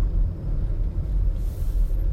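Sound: car interior rumble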